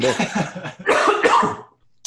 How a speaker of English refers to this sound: I have something in my throat that is just on the cusp here, and I don't want to like cough and everything, but I'm about to like crack my voice.